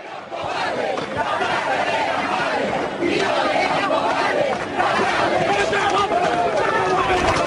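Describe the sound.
A large crowd of protesters in the Plaza de Mayo shouts and yells in a dense, chaotic roar, many voices overlapping continuously at high intensity, agitated throughout, as mounted police cavalry charge through the square running people down.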